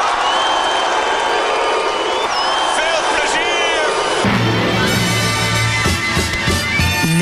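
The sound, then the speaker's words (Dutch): A large crowd at the Pinkpop 2010 festival cheers and applauds loudly and continuously as Job Cohen makes his entrance, with whoops and shouts rising over steady clapping; a chanting swell joins in partway through. “Luister naar de opkomst van Job Cohen op Pinkpop 2010.”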